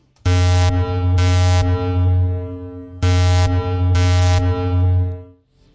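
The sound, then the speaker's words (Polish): A submarine sonar signal sounds twice, each a loud, sustained electronic tone of about two and a half seconds with rhythmic brighter pulses inside, clear with no voices. “Pierwsze okręty podwodne wpływające, wpływające w świat y, y, powszechnego zlodowacania to mniej więcej ten, ten moment”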